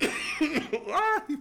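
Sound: coughing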